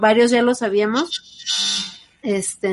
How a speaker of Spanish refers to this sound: ¿qué es eso? Ese es el timbre de la casa, sí.